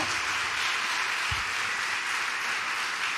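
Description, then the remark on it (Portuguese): An audience applauds loudly for the Messiah, a dense, steady wash of many hands clapping at even loudness for the whole stretch, with no voices rising above it. “É a revelação, aplauda bem forte ao Messias.”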